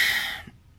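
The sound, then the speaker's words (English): A short, breathy sneeze bursts out, a hissing rush of air that fades within half a second into quiet room tone. No one speaks. “bless you”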